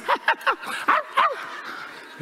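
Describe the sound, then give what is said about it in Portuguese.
A small dog yaps five times in quick, high-pitched bursts, three close together and then two more after a short pause, moderately loud. “Tem irmão aqui que chegou com a cachorrinha puxando ele.”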